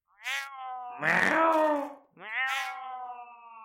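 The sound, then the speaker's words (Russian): Ghostly cats yowl loudly in three long, wavering calls, the middle one harsher and more strained, with no talking, giving a battle cry as they attack an army of rats. “Издали клич призрачные кошки, атакуя крысиное войско.”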